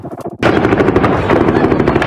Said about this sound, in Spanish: Así, con balazos y con ciudadanos atrapados en medio de las ráfagas de fuego, fue como un grupo armado intentó recuperar a un presunto líder criminal en el municipio de Altar Sonora.